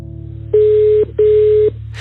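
Two steady electronic telephone tones as a call is placed to an editor, each about half a second long with a short pause between, sounding clearly over a low background hum, with no one speaking.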